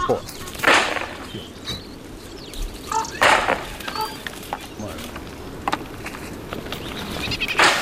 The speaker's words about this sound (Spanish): supongo que estará resonando, o sea que el supongo debe ser cierto, y es el celo de las cabras montesas